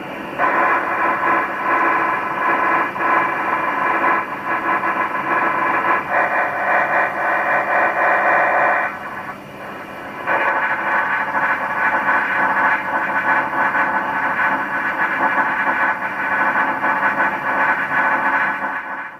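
Crackling radio static from an ionized meteor trail, made as meteor particles glow and ionize in the atmosphere within Earth's magnetic field; a steady, rough band-limited hiss that briefly drops out about halfway through, then returns just as loud. No voices.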